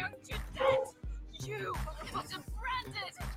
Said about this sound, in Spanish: Aquí los perros de mis primos nos saludan.